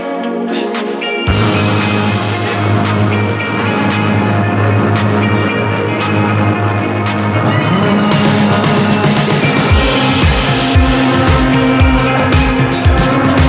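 A loud, bright pop song starts after a brief moment, with dense distorted guitars and sustained chords, and a driving drum beat kicks in partway through.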